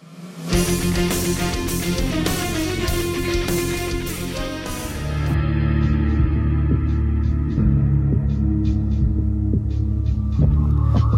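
Loud, dense orchestral battle music plays throughout, with sustained chords over a heavy, throbbing low end and regular bright percussive hits; no one speaks.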